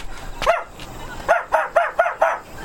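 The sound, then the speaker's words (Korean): A male mixed-breed dog named Ttongpari, a former stray, barks once, pauses, then lets out a quick run of five sharp barks in a steady rhythm, clear over faint background noise. “이 익숙한 개 소리는 우리 똥파리 소리인데?”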